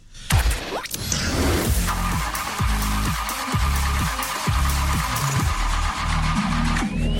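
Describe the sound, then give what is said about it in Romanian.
A car engine cranks over and over without catching, a steady rhythmic churning of low pulses under a whining starter motor, fairly loud, with no voices. “nu mă, că nu-ți pornea motorul, nu vezi că e...”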